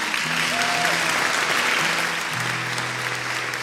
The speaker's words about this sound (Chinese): 掌声有请。